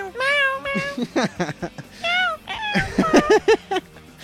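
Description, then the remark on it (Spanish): Several kittens meow repeatedly, their high, wavering cries overlapping in quick succession with brief gaps, fairly loud, some calls rising sharply at the end. “Este, y son varios gatitos, ¿ya vieron?”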